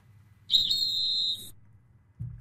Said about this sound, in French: Vous répondez si vous le souhaitez au coup de sifflet.